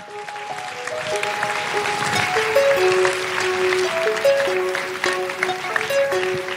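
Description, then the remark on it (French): An audience applauds steadily for several seconds, a dense crackling wash of clapping, while a simple melody of held musical notes plays along underneath. “que d'applaudissements.”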